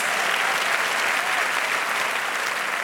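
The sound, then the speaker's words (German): Steady, dense applause from a large audience at a prize acceptance, thanking a former intern, many hands clapping at once in a continuous wash of sound that holds at an even, fairly loud level throughout. “Und Applaus.”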